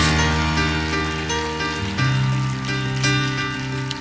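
A crowd applauds with steady, dense crackling clapping that holds throughout, blended with sustained musical tones underneath; no one speaks.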